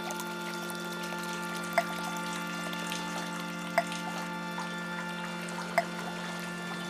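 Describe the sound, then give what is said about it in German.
Water pours steadily in a continuous, even wash as the water rises, with a faint hum underneath and three soft plinks at regular intervals. No one speaks. “Der Vorhang wird nass, das Wasser steigt, steigt, steigt, steigt, steigt.”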